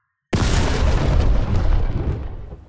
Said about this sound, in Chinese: 这下呀，小汉堡的身体器官整个大爆炸啦！